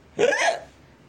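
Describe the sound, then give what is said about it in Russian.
A single loud, voiced hiccup from a man who has just taken off his cap and made an elaborate bow, a short gulping burst that fades quickly into quiet, with no talking around it. “Снимает кепку, делает замысловатый поклон и икает.”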